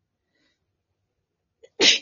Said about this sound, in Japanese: 失礼。急に。こんなタイミングじゃなかった。すいません。すごいね、頑張ってるねタイミングでくしゃみしちゃった。